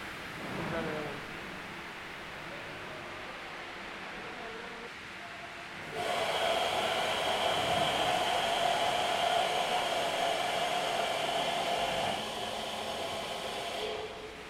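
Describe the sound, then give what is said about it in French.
A wine press motor, started up to press grapes during the harvest, kicks on abruptly after a quiet murmur of voices, then runs with a loud, steady whirring drone and a constant hum, easing slightly near the end. “Ça y est, vous allez activer le pressoir Oui, ça on va le mettre en route.”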